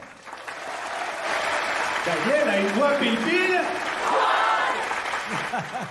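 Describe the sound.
An audience applauds loudly and steadily for the whole stretch, a dense wash of clapping while a man talks over it.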